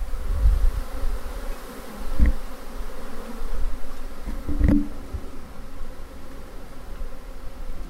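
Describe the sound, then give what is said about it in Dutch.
A dense, continuous hum of a swarm of honey bees that has split off from its colony, many bees droning together, with a few soft thumps and brief louder passes over the steady buzz. “ze hebben gekozen om zich dus af te scheiden. En nu gaan ze allemaal, hoor eens, wat een geluid.”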